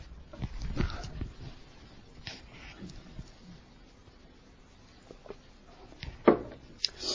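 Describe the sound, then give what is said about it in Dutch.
Several rough, muffled coughs break out in short bursts separated by quiet pauses, with a sharper, louder cough toward the end; no one speaks. “Met hoesten en proesten en zo.”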